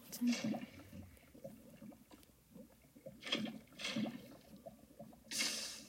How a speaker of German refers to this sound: Ähm, ich schütte mal hier mein Wasser weg.